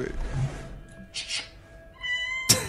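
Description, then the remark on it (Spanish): A cat video of the kind found on Instagram plays through a small speaker, as if from a phone. The cat gives drawn-out, tonal cries at moderate volume, ending in a sharp burst, with no talking. “Gato del día.”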